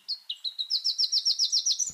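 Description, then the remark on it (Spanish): A black-crested warbler, a small bird up to 14 cm with an olive back, black crown and yellow underparts, sings: a few separate high, thin notes quicken into a rapid, slightly rising trill of bright chips, clear with no voices. “El trino del arañero cabecinegro forma parte del Banco de Sonidos de Aves Colombianas, recopilado por el Instituto von Humboldt y la Universidad de Cornell.”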